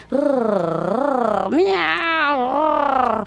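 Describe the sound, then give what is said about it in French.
A person imitates a cat's purr, a loud, continuous rolling hum with a rising and falling pitch, carried in two long breaths with no other sounds. “ronronne comme un chat”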